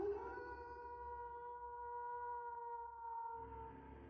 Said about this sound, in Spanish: Escucha, escucha el largo y ululante aullido.